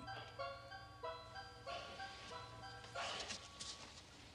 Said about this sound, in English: There's the that ice cream truck.